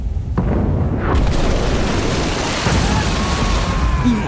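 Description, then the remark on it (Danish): A heavy artillery cannon boom erupts almost at once, followed by a long, rumbling roar that lingers without fading for several seconds, loud. “Men når det er herfra, der bliver skudt mod Borgerland, så skyder Borgerland jo, altså prøjserne derover også tilbage hertil.”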